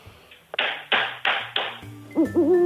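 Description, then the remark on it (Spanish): Four sharp hand claps made over the telephone to try to scare off an owl, in a steady, evenly spaced rhythm, fairly loud, followed by a short tonal, voice-like sound at the very end. “Pues unas palmadas.”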